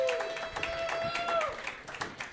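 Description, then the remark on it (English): An audience at a joke competition claps steadily throughout in a dense burst of applause as the first competitor of the evening is introduced, with a thin sustained tone, maybe a whistle, gliding above the clapping for the first second and a half. “Round of applause for Michael Mann.”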